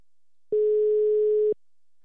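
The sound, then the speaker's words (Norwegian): A single steady electronic ringback tone from an outgoing phone call, a clear mid-pitched beep lasting about a second, surrounded by silence. “Hvis han tar telefonen, da.”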